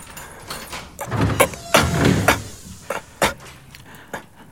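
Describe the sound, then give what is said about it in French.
Doors and windows are flung wide open in quick succession, a run of wooden clunks, latch rattles and scraping thuds spread over a few seconds, with no voices. “Faites circuler l'air, qu'on ouvre les portes et les fenêtres en grand.”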